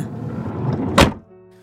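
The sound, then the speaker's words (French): A van's sliding door rumbles along its track and slams shut with one heavy thud as a man closes it, followed by a brief dull ring as the cabin settles into quiet. “s'exclama Joël en fermant la porte coulissante du van”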